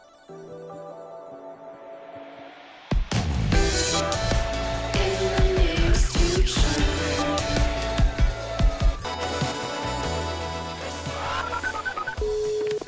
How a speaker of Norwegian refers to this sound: Jeg har funnet fram noe musikk.